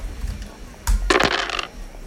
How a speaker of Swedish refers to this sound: Okej, jag rulla en tärning.